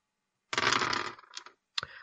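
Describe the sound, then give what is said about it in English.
Dice clatter and rattle across a hard tabletop for about a second, settle briefly, then a final sharp knock follows. Fairly loud, with no voices. “This will be fine. But the dice might be.”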